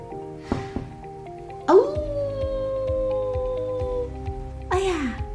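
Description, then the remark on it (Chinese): A wolf howls twice, a long wavering cry that slides downward in pitch, then a shorter second howl, heard over a steady pulsing musical background. “哦，是可怕的大野狼！”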